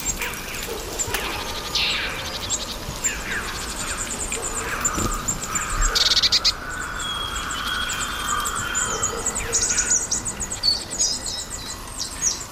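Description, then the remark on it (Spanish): Crows and carrion crows call intermittently over a dense, steady outdoor ambience with no one speaking; the bell of the collegiate church of La Granja may sound faintly in the background. “Hay cuervos, ah, hay cornejas y está al fondo la un cuervo, Y al fondo está la campana de la colegiata de la granja.”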